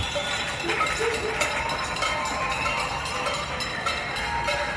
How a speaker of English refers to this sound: More cowbell. So you can hear the folks, they're cheering, they're banging things. And listen, it's a great morale booster.